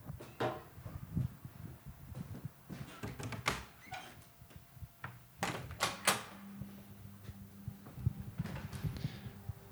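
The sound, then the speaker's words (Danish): A front door opens and closes, with clunks of the latch and handle, shuffling, footsteps and several sharp knocks as someone leaves through it. No one speaks. “Øh, og så er der jo ikke så meget andet for, end at skulle ud af døren øh, og på vej op for at hente hende.”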